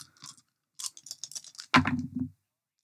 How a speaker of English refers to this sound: I just roll four times because I'm out of the five dice.